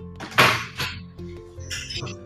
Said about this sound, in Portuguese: se eu, se eu abrir a minha gaveta aqui, eu extraio daqui na boa agora.